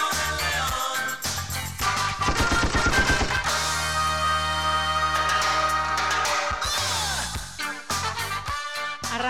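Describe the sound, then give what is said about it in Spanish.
Rapid bursts of gunfire crackle in quick succession, loud, then give way to a sustained roaring din with more scattered shots near the end. No voices. “arrancamos a los tiros acá. Arrancamos a los tiros en las cosas raras.”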